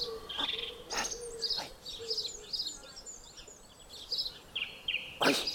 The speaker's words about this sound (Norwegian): det er noen fugler som kvitter her.